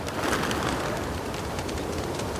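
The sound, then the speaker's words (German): Pigeons coo and murmur in a steady, dense chorus filling an enclosed pigeon loft, with a constant rustling, busy background and no voices, as a pigeon dealer inspects the loft and handles the birds. “Andreas inspiziert einen Taubenschlag nach dem anderen. Pro Tag wandern unzählige Vögel durch seine prüfenden Hände.”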